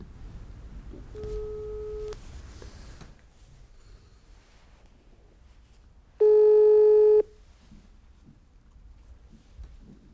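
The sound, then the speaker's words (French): A telephone ringback tone from placing a phone call sounds twice, a softer ring around one to two seconds, then a louder, steady buzzing ring near six to seven seconds, with quiet background noise between and no talking. “Donc ce que je vous propose, c'est de lui passer un petit coup de fil, tout simplement,”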